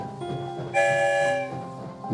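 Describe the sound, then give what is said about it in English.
A train rolls along steadily, its hum swelling into a bright, sustained whistle-like blast midway before easing back to a lower rumble. No voices are heard. “Who knows where Santa's story train will take us today?”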